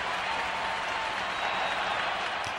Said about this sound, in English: So, that, of course, we need to play this the applause.